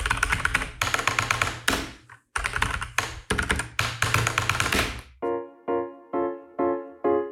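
A top keyboard operator types at about 460 keys per minute to switch schools in a Chinese exam application system, the rapid keyboard typing clattering in dense bursts with a couple of brief pauses, then giving way to five evenly spaced electronic beeps. No one speaks.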